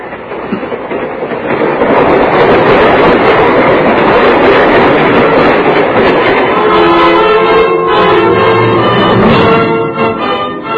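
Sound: train running on rails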